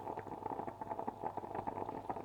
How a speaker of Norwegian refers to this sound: Oppi der legger du da kaffepulver, og så skal da vannet trekke gjennom kaffen, da. Ja, det er som bli... en eh, trakt. Altså en motsatt trakt, da. Og så, ja, så kjører den vannet opp.